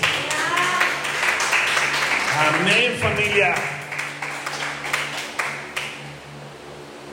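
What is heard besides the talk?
audience applause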